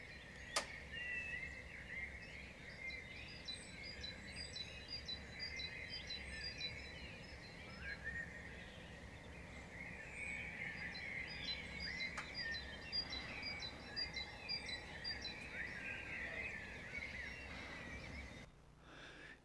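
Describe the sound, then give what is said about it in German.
Many birds sing and chirp at once in a busy outdoor chorus on a cold early morning, with repeated high trills and calls over a steady low background rumble. “die Vögel waren schon so aktiv, obwohl es heute Morgen so kalt war, ich war begeistert.”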